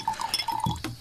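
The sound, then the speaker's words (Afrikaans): Wine glasses filled with a 2014 Merlot clink together in a toast, giving a bright, briefly ringing chime, with a little liquid sloshing afterward. No voices. “Gesondheid. Selfde vir oom.”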